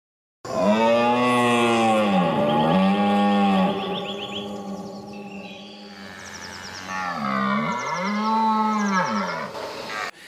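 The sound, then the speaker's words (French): A red deer stag bellows in the rut, giving long, loud, deep roars with rich harmonics. The roars rise and fall in pitch across several drawn-out calls, with no one talking. “Et donc tu compares avec le brame du cerf.”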